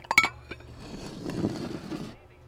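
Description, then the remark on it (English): Dishes being cleared: a quick cluster of bright, ringing clinks, then a steady low clatter and scrape of plates and cutlery being gathered up, fading out after a couple of seconds. “Okay, if you're not hungry, then just clear your dishes.”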